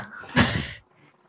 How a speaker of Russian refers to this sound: Э, я извиняюсь, сейчас у меня тут кошка сходит с ума.